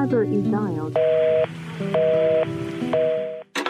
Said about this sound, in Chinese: 一次次的鼓起勇气，拨打着那一串熟悉的号码，却害怕等到的是。